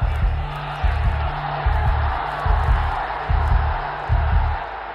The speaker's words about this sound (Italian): E si batte sul petto mentre la folla davanti a lui è enorme, in delirio.